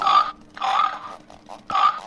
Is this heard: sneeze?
no